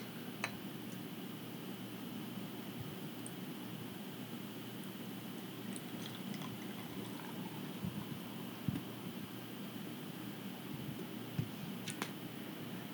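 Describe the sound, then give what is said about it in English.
A beer is opened and poured, giving a steady, soft fizzing hiss, with a few faint clicks and taps scattered through. No one speaks. “There's one guy who loves to hear this noise of us uh, opening and pouring.”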